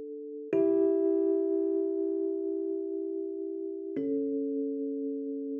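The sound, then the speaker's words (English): A solo cello plays the prelude of a cello suite in slow, sustained low notes, each held for several seconds, with a clear change of pitch partway through. The instrument sounds fairly loud, with no voices. “this like prelude to this Bach cello suite that I just think is like so beautiful”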